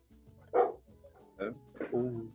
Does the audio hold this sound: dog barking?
yes